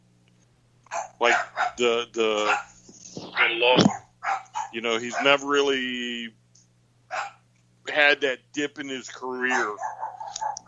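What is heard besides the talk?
dogs barking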